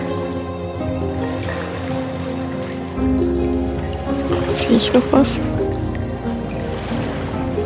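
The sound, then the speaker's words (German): Water trickles steadily in the background, a soft continuous wash with a low rumble, while a person speaks briefly over it and a few faint knocks sound midway. “Fließt das Wasser denn in die offene Richtung?”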